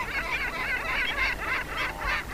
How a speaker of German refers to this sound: ist die sehr ambivalente Mittelmeermöwe, die sich übrigens in ihrem Verhalten in gar nichts von ihrer hiesigen Verwandten, der Silbermöwe, unterscheidet.